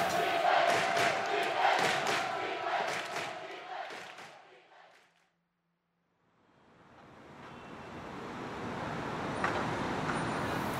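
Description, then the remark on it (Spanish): A dense, steady roar of city road traffic fills the first half, fades out to a brief silence, then swells back into a continuous loud wash of passing vehicles. “Este es el sonido que más evito. Por eso es tan importante la bicicleta, para no, no tener que bancarse esto.”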